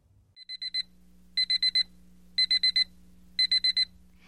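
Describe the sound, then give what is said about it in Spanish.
An alarm clock set for 10 o'clock rings in four loud bursts of rapid electronic beeps, about one per second, each burst a quick cluster of high tones, with a faint low hum beneath. “Yori se fue a la cama tan pronto como llegó a casa y puso la alarma a las 10 en punto.”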